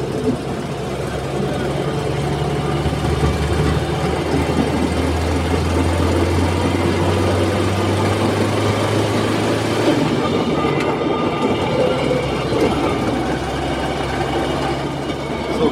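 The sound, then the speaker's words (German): A train pulls away on a white departure signal and rolls steadily along the rails at about 40 to 45 km/h, a continuous rumble with a low engine drone that shifts partway through, wheel noise carrying on throughout. “Gleich fahren wir mit knappen 40 km/h.”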